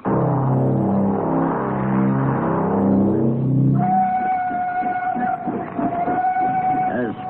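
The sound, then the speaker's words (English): A train engine rumbles steadily as it moves slowly toward a switch and siding by the entrance to a mine, and partway through a long, sustained whistle tone rises over the rolling mechanical clatter, loud. “the engine came into view moving slowly.”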